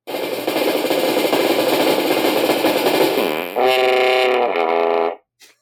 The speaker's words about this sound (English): So, so for my April sound effect, I did put together a brain fart sound.